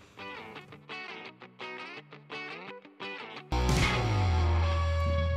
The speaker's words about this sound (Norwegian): Men uh, før vi begynner å fjase oss bort, så skal du få høre ei kort låt.